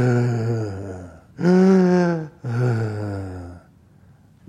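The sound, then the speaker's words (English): A voice imitates a man breathing loudly and heavily through his mouth: three long, harsh breaths in a row, the middle one strongest, rasping, then a short quiet trailing off. “But he was breathing through his mouth really heavily,”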